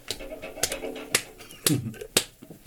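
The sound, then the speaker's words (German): A fist smacks into an open palm about six times in a steady, even rhythm, each sharp slap distinct, with faint murmuring voices in the background. “Tim haut sich in die Fäuste.”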